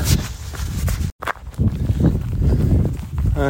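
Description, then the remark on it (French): Horses moving, with steady dull hoof thuds and shuffling over rough ground, a continuous rustling texture broken by one brief moment of silence. “je croise les chevaux.”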